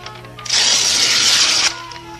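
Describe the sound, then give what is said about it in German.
A plugged-in electric power saw cuts boards to size in a single steady burst of about a second, a loud harsh hissing rasp that starts and stops abruptly over a faint low hum. “Erstmal das Spezialwerkzeug einstöpseln, denn die Bretter müssen ja noch zurechtgesägt werden.”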